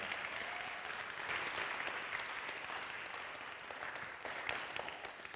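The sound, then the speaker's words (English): Steady applause from an audience, dense rapid clapping that holds at an even level for several seconds with no one speaking over it. “One more round of applause for this guy.”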